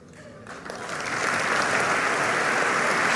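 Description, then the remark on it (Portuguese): A Congress audience bursts into applause for Luís Montenegro's act of contrition, starting with scattered claps and swelling within a second into steady, dense clapping that holds loud and even to the end. “Um ato de eh, contrição de Luís Montenegro, um, eh, a merecer aqui aplausos eh, por parte do Congresso.”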